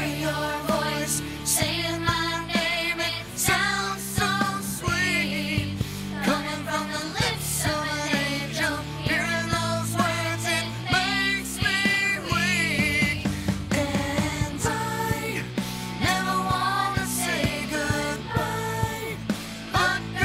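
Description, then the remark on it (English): A polished kids' pop cover of a rock ballad plays continuously, with melodic sung vocals over a full, steady band backing at a consistently loud level. “But would you immediately think, hey, this could be a radio friendly kids hit?”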